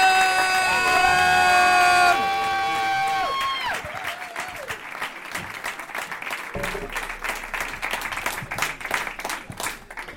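Loud audience applause with cheering and whoops as a performer is introduced, opening under a bright, sustained musical sting that cuts off after about two seconds, then dense steady clapping continues to the end.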